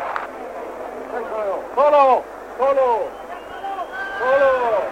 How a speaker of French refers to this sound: Et vous entendez l'ambiance des arènes en ce moment, à la minute de vérité. Tout le monde haletant attend la mise à mort. Et d'une estocade, il vient de tuer son deuxième taureau.